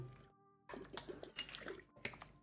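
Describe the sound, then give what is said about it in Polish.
Water splashes and trickles in a short, uneven burst after a brief moment of near silence, like water being poured into a glass and drunk, with no voices present. “pijemy wodę, moi drodzy.”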